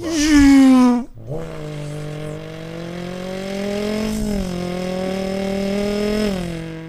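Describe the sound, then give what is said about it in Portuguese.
A voice beatboxes a vehicle engine: a brief loud revving burst that drops in pitch, a short gap, then a long buzzing engine drone that slowly climbs, with no talking. “É, tinha perguntado também de, de som de transporte, né? Que ela falou de ah, que a gente helicóptero, né? é, acho que tem de carro também, skate.”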